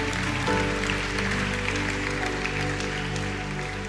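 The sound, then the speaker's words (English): An audience claps their hands for Jesus, a dense crackle of many palms spread over sustained organ or keyboard chords that hold low, rich tones throughout. “Come on, you can clap your hands for him.”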